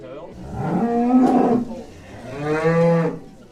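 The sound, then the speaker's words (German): A cow on a Swiss farm moos twice in succession, each call long and loud, with a deep droning tone that rises and falls; no one speaks. “Auf einem Schweizer Bauernhof wird die Miss Horn gewählt, die Kuh mit den schönsten Hörnern.”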